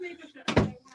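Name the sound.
door shutting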